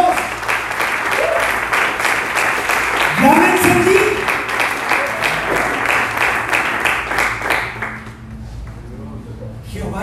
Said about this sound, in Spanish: Alguien dice amén a esto. Alguien puede aplaudirle a nuestro Dios.